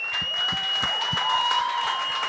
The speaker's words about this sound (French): On applaudit jusqu'à temps qu'il commence, s'il vous plaît.